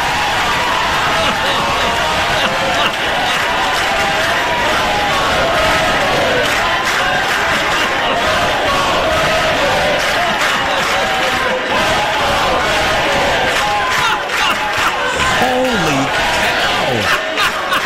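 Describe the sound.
A large crowd roars and breaks into loud, rhythmic chanting, many voices shouting together steadily throughout, with cheers and whoops rising over the din near the end.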